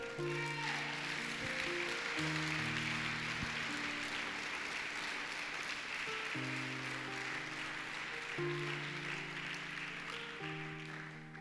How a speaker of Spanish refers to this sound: Eso merece un aplauso bien fuerte.